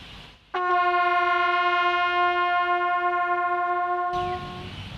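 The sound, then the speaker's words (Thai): A bugle, which has no buttons or holes, sounds one long, steady sol note, loud, held for about three and a half seconds before cutting off, with no voices. “แตรเดี่ยวเนี่ยค่ะ มันไม่มีปุ่มกดหรือมีรูอะไรเลยมันมีหลักการทำงานยังไงบ้างอะคะ ที่มันมีหลากหลายเสียงอย่างนี้ได้ เสียงเกิดจากการสั่นสะเทือนของยิมพิปากครับผม”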